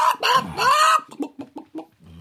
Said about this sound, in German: Hey, dieses Tier pickt mich. Dann lass sie los. Weißt du, ich habe ah. Hühner nie so richtig gemocht.